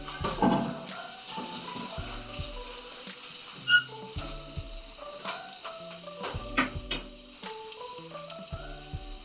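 A pot of fish soup with bamboo shoots and fish skin is stirred to heat the fish evenly, over a steady simmering hiss, with scattered scrapes and light clinks of the utensil against the pot, all under a soft, continuous melodic background.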